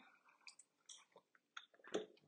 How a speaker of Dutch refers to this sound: Even een heerlijk slokje. Ah, voel me even bewust van de warmte van het water.